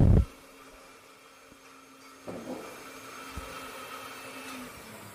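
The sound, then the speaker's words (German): A blender whirs steadily in the background, a low mechanical hum with faint grinding, joined by a brief loud knock at the start and a few soft clunks. No one speaks. “Man hört den Mixer im Hintergrund.”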